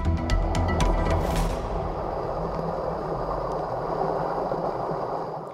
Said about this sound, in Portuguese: E a cachoeira pode se revelar ainda mais bonita